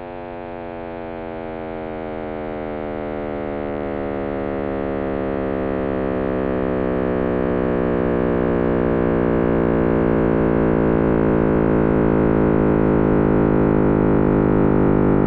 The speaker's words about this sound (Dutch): Maar even goed nagaan dat het dus gewoon kosmische achtergrondstraling is in audio. Dat is ongelooflijk. Het is een overblijfsel van de oerknal.